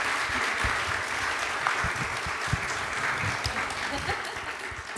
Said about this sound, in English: It has been an absolute pleasure interviewing you, and I think they deserve a round of applause, everyone. Thank you, everyone.